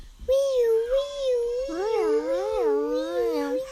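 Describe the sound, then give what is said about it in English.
Children's voices imitate a wailing fire truck siren, one wavering tone held throughout, joined midway by a second voice with quicker rising and falling swoops, loud. “Can you guys make a siren noise?”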